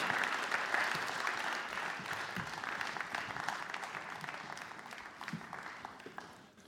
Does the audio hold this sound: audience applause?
yes